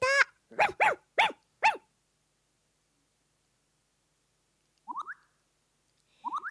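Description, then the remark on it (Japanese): A dog at a car window barks five times in a quick burst, then after a pause gives two softer, shorter barks spaced apart, with no talking. “車の窓でお耳がピクピク誰かな犬さん見”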